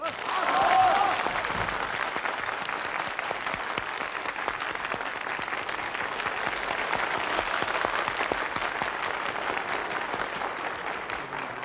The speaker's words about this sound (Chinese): 同志们、朋友们，让我们以热烈的掌声欢迎江泽民总书记和李鹏总理为大家讲话。